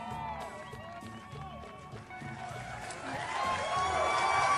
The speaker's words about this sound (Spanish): Ovación calurosa para el rudo, sí señor, claro.